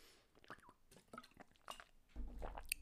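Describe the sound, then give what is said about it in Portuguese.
Someone takes quiet sips of water, with small wet slurps and liquid clicks spread over a few seconds, followed by a fuller, louder gulp or shuffle near the end. “água”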